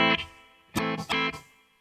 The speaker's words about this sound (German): Ich nehme mal einen hübschen A-Moll. Merkt man es ganz trocken, ist clean. Jetzt könnte ich hier den Hall dazu schalten.